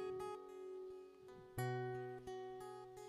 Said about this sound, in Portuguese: vocês podem ouvir agora esse solo que o Will está tocando